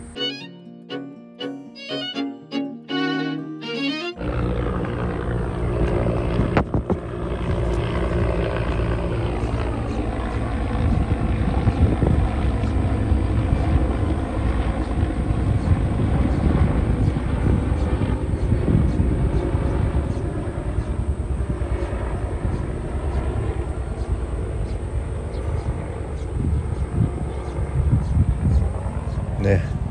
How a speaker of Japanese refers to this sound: 空高くヘリコプターが飛んでいきました